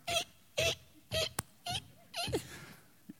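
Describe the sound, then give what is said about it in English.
A voice imitates a little kid's sneakers squeaking during worship with five short, shrill, squeaky bursts in an uneven rhythm, moderately loud, ending with a faint tap. “I heard a sneaker squeaking.”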